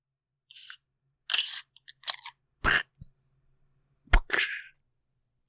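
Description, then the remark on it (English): Drink cans being cracked open: a few sharp pops, each followed by a brief fizzing hiss, spaced out over several seconds with short quiet gaps and no talking. Two of the can openings are virtual and one is a real can. “that's that's uh, two virtual cans and one real can opening here on the Tiltcast.”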